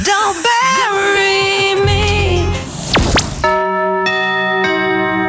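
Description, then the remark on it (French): A vintage radio station chime jingle plays loud and alone at 11:02 on World Radio Day: warbling tuned tones and a swooping sweep give way to clear, sustained bell-like notes struck at steady intervals. “Mais 11h02, qu'est-ce que c'est que ce carillon bah, C'est aujourd'hui la journée mondiale de la radio, donc il y aura plein d'habillages, plein de souvenirs européens.”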